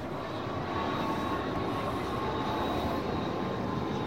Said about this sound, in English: Oh, I forgot to mention that we're right near the airport, so you might be hearing a bit of that over the next few days.